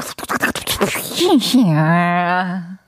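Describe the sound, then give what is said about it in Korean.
A voice imitates a balloon deflating, starting with rapid sputtering bursts and sliding into a long, wavering buzzing tone that drops in pitch before cutting off, fairly loud. “풍선 빠지는, 바람 빠지는 소리는 한번 연구해 볼 수 있을 것 같아요.”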